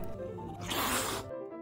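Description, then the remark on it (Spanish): A person imitates the hiss of a huge angry cat from Graciela Montes's story "Más chiquito que una arveja, más grande que una ballena" with one breathy, forceful burst of about half a second, fairly loud, with quiet background tones before and after. “Tan grande, pero tan grande, que cuando estaba enojado y hacía...”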